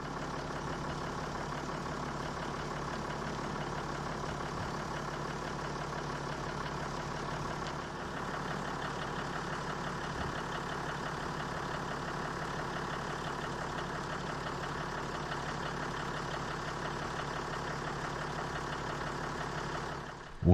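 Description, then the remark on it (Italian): A steady, rumbling engine drone from off-road cars driving over sand dunes in the Libyan desert, at the western fringes of the Ubari erg, approaching the first dune, runs for the whole stretch, fairly even in loudness, with no voices, ending in a brief louder burst. “Arrivati al primo cordone di dune, il nostro apripista Atos si piazza in posizione strategica per guidare le auto seguenti verso il punto migliore per approcciare la prima duna tagliata.”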